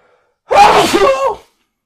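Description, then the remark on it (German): A single loud sneeze bursts out after silence, a sharp explosive blast with a brief wavering tail, then quiet again. No talking accompanies it. “Gesundheit erstmal.”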